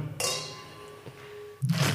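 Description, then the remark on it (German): Two wine glasses clink together in a toast before tasting the wine, a bright ringing tone that lingers and fades before a second soft knock of glass at the end. “Und äh, das würde ich sagen, ist ein guter Anlass, um den Wein jetzt mal zu probieren. Ja, zum Wohl”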